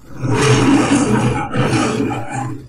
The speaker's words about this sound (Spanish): De pronto apareció el jaguar y el león dio un fuerte rugido diciendo...